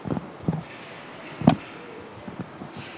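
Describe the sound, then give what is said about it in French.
Several dull clunks and knocks as a heavy panel in a car's trunk, a slab that is a holographic projection system above a large sound system, is handled, with one louder thump in the middle, against a quiet background hiss. “L'autre particularité de cette voiture, eh bien, c'est ici, c'est dans le coffre. Alors, je vais essayer de pas l'abîmer, c'est très lourd.”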